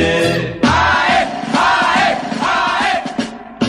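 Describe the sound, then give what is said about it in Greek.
A CD recording of a football team's anthem plays at home: a loud crowd chants the anthem in unison, voices swelling in rhythmic bursts over a full, dense recording that fills the whole stretch without pause. “έχει βάλει το CD με τον ύμνο της ομάδας.”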